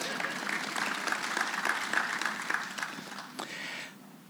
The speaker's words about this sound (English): So you can give her a round of applause if you like.